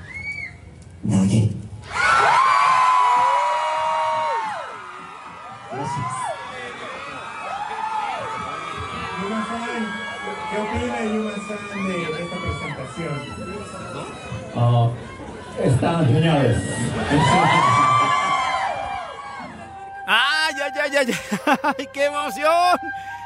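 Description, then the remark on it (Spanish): A live audience cheers and shouts loudly, many excited voices screaming together in a sustained, surging roar that swells and dips, before a single clearer voice cuts in near the end. “Yo creo que yo ya estuve gritando también allí entre el público, ¿no?”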